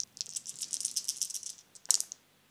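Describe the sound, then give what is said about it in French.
Four dice, rolled for an attack in a tabletop role-playing game, rattle steadily for over a second, as if shaken in a hand or cup, then land with one sharp clack and a short clatter. Fairly quiet, with no voices. “Et eh bien, donc tu vas me faire un jet de 7 moins sa défense 3, ça fait 4 dés.”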